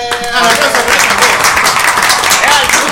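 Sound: applause sound effect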